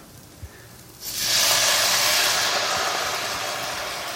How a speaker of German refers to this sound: So, und dann gieße ich das Ganze mit Milch auf.